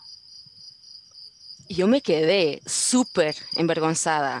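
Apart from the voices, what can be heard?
cricket chirping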